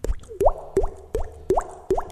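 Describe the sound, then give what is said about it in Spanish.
A voice imitates a water drop with about six quick mouth plops, each a rising 'bloop', repeated at a steady, even pace. Clear, with no talking. “Y también este como imitar, no sé, sonidos ambientales, no sé, una gota”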